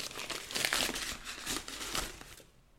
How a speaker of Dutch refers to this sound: Oh, wacht, is het echt goed ingepakt? Ik ga een beetje scheuren. Ik ga scheuren, dat is leuk.